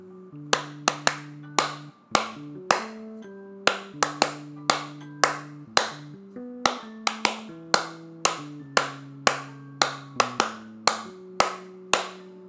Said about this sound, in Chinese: 那我用一个例子，大家可能就很好理解。那我现在会打一首歌，就是会用手拍一首歌。那你们听听看，你们听不出来这是哪一首？